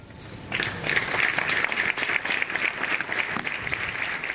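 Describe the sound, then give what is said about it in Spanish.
A brief quiet moment ends a midday minute of silence held in Spain for the victims of a fire. At about half a second it gives way to steady, dense applause from a crowd, many hands clapping in a sustained crackling wash until the end, with no voices. “Muchos ayuntamientos españoles han guardado a mediodía un minuto de silencio por las víctimas recordadas después con aplausos.”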